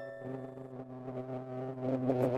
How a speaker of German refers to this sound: Dieses Summen hier, das ist technisch gesehen ein natürlich erzeugtes weißes Rauschen. Ein Bienenkasten über dem Bett erzeugt ein eintöniges Geräusch ohne große Lautstärkeschwankungen. Auf Englisch White Noise.